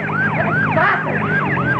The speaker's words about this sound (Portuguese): Nossa! É, está chegando a ambulância que eu pedi.